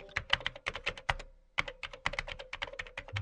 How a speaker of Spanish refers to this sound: siguió tecleando, comando tras comando letra tras número, función tras... No estaba haciendo gran cosa, pero ocupaba su mente.